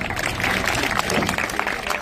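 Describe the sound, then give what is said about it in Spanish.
An audience at a live music show claps steadily for about two seconds: a dense, even wash of many hands that stays loud throughout, with a faint murmur of voices mixed in. “a regalar un aplauso con ganas, señores?”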